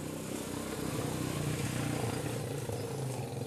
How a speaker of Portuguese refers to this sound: Ah, desculpa, gente, passou uma moto aqui.